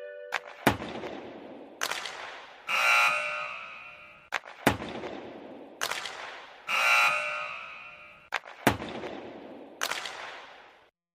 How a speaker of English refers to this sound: That last one was a hockey match. And that was the hockey buzzer. And the hockey buzzer signals the end of the hockey match, and in this case, the end of Finish the Pattern.